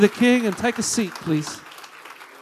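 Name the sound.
audience applauding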